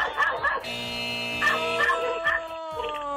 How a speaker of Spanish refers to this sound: Ay, no, el perro, el perro. ¿Qué dice que es el perro? El perro está eh, ladrando.